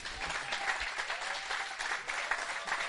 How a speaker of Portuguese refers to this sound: Não sei se podemos dar e honrar os vossos líderes com uma salva de palmas